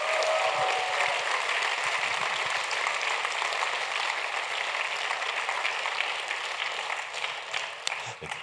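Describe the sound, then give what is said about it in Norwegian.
A large crowd at a church worship meeting in Norway claps loudly and steadily as applause for Jesus, a dense, sustained wash of applause for several seconds before beginning to thin out near the end. “Skal vi gi Jesus en god applaus for …!”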